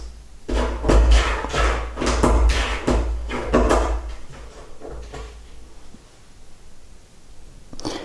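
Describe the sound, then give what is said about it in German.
A cupboard door rattles and knocks repeatedly in quick, uneven bursts for several seconds as a bored tomcat plays with it, fairly loud, then quiets before one last knock near the end. “Ja, ihr hört, den, dem Kater ist langweilig.”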